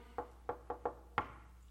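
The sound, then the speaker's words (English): Five crisp knocks on a door in the bouncy shave-and-a-haircut rhythm, the last one landing hardest, clear with no voices. “It's a tune. Shave and a haircut, two bits.”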